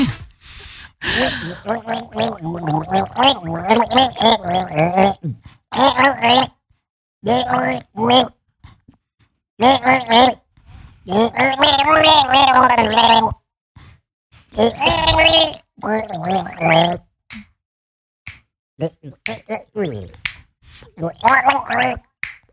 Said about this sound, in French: Bon, je suis là pour euh, vous chantonner une chanson dans mon tuba.